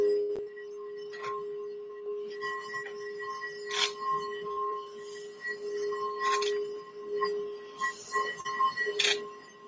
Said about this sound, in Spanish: Vamos a ver, a hacer una prueba de sonido para ver cómo se escucha el tazón.